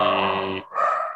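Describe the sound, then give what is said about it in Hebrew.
A dog in the background lets out a loud grunt that lasts about half a second, then a rougher, breathier snort follows after a brief pause. “אבל זה הכלב ברקע.”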